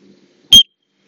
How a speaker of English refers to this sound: And uh, yeah, I'm just whistling. That's that's Obed. I'm just trying to keep my dog in check while we wander around.